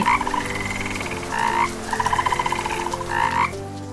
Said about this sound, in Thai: เจ้ากบเขียวผู้น่าสงสารก็นั่งร้องไห้อยู่ท่ามกลางสายฝนที่ตกอยู่ริมฝั่งแม่น้ำเขาร้องไห้และร้องไห้และนั่นก็เป็นสาเหตุว่าทำไมกบถึงร้องคร่ำครวญเมื่อฝนตกมาจนถึงทุกวันนี้